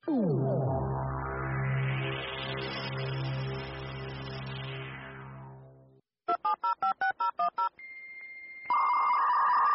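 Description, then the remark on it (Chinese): A dial-up modem connects over a phone line to go online: a quick run of about eight touch-tone dialing beeps, then steady, high-pitched electronic handshake tones. Before that, a long resonant, humming tone swells and fades. “你嘛较好心嘞，规工电话用甲叽叽叫，小气啊啦！”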